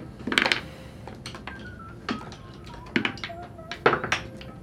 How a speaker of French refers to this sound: Lance-moi des 6 s'il te plaît.